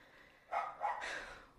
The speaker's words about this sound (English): Grover is barking at somebody or something. I don't know what.